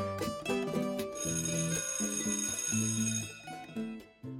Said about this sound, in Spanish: Se cierran las puertas del edificio Galerías a la espera del timbre que anuncia el inicio de una nueva jornada.